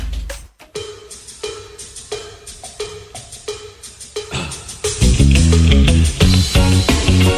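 A rock song plays with no talking: a sparse intro of steady, ringing percussive hits over light backing, then at about five seconds the full band crashes in loud and dense.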